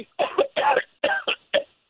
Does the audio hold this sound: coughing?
yes